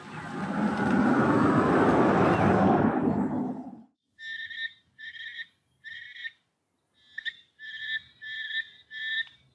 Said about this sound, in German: Dann das Geräusch, das ihr hört, ist ein Frosch aus dem Nebelwald in Ecuador.